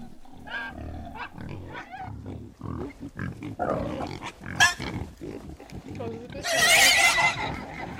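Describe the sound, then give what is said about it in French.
A piglet squeals aggressively while being killed, in a run of harsh, shrill, loud cries, peaking in one piercing scream near the end, with people talking underneath. “Mais c'est un cochon C'est un porcelet mais ils sont en train de les tuer Mais c'est horrible quand même Mais ils vont les tuer”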